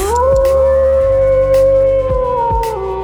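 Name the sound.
wolf howling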